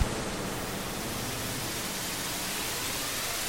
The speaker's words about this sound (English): Jeez! I just felt like we went to warp. wow, that was I, intense. When I made that, I didn't know it was going to be so all encompassing like that.